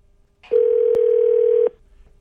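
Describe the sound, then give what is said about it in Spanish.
A single steady telephone ringing tone sounds for just over a second as a call is placed to two mothers-in-law, loud and clean, with no voices around it and quiet line hiss before and after. “Ahí Estamos llamándole a dos suegras que no se hablan.”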